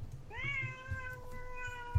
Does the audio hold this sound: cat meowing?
yes